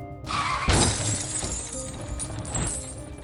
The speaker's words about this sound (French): Mais dans son excitation, Jean a eu un petit moment d'inattention. Quitta la route et prit un arbre de plein fouet.